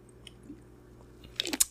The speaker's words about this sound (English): I'm gonna take a drink, and I'm not gonna edit it out. You guys are just gonna hear me enjoy this.